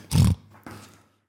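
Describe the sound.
A voice imitates a pig, giving one loud, throaty oink followed by a shorter, softer grunt, with no other talking.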